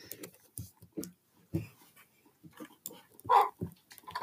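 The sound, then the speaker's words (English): A dog barks in short, scattered bursts, with one louder bark near the end, amid soft panting and faint background clatter. “Okay, dog, stop barking.”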